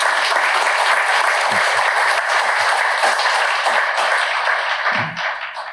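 An audience breaks into sustained applause, a dense, steady wash of many hands clapping that holds strong for several seconds before starting to thin out at the very end.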